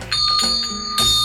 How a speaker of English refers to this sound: That's a sad jingling. It's a sleepy jingling.